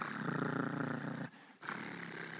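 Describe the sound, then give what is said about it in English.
A cat purrs in a steady, rumbling rhythm, pausing briefly for breath before the low vibrating purr resumes. No talking. “You ever a cat purr?”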